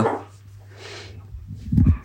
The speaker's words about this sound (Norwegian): Ja, ja. det var de hundene.